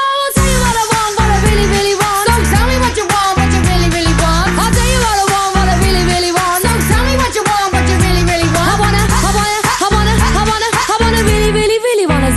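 Upbeat 1990s girl-group pop plays loud and continuous, with a punchy, steady beat, bright synths, and several voices singing together in a catchy, energetic chorus.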